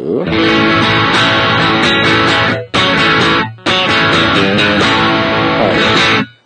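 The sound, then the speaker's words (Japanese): Loud, saturated electric guitar driven through an overdrive pedal, strummed chords ringing thick and buzzy, cut by two brief pauses before resuming; no one speaks. “なんか、そうね、トーンの感じはそんなに TS と変わんないというか、その可変の具合。”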